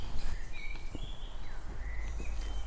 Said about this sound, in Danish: Her i haven synger fuglene videre.